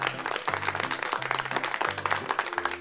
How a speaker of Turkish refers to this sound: Çok teşekkür ediyorum. Alkışlar size.